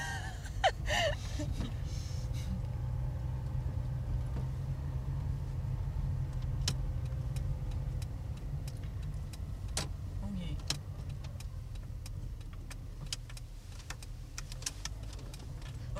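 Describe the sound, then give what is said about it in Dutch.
A car drives along on a first test drive after being bought, with a steady, deep engine and road rumble that holds throughout, while sharp little clicks and ticks pop up now and then, and a short breathy gasp sounds early on. “Mijn eerste proefrit.”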